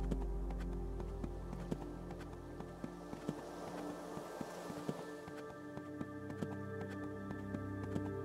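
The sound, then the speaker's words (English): Soft, quick hoofbeats of a horse galloping on a sandy beach shore, a steady run of sharp thuds over a low, sustained musical drone, fairly quiet throughout. “With such free space here on the shore, you encourage your steed to use its power. From a walk to a trot to a gallop.”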